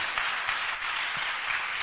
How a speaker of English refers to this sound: Clap for yourself because you're going to do it.